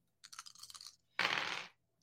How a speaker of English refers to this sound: You absolutely can. Go ahead and roll three dice.